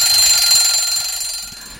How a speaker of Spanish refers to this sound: Me me ha pillado la campana.